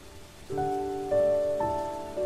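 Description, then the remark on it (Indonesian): Steady, soft rain hisses in the background while a few gentle melodic notes ring out, one roughly every half second, over the constant patter. “Perlahan semilir angin menyibak rambutku menyusuri tiap helainya, dan lembut membelai wajahku yang sedari tadi menunggu hujan reda.”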